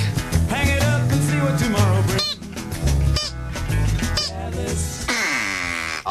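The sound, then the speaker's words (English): Loud, nasal duck quacks and honks repeat in a steady string for several seconds, layered over a dense, busy backdrop that sounds like music with a pulsing low bass. “Make your duck a grateful duck.”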